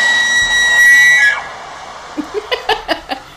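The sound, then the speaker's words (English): A bull elk bugles: a loud, high, reedy whistle held for over a second, which breaks downward and gives way to a rhythmic series of about six short, throaty grunts. “Snakes and Elks calling”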